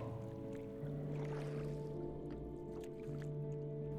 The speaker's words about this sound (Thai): ในขณะที่พายเรือกลับบ้าน เวลาประมาณเกือบหกโมงเย็นแล้ว